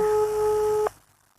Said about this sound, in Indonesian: Kita coba telepon dulu ya. Hmm, semoga diangkat sama dia.